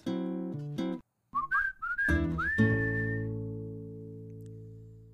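A short, bright whistled phrase of quick rising and falling notes, ending in a longer held note over sustained musical tones that linger and fade. No one speaks.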